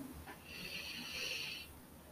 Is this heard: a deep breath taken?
yes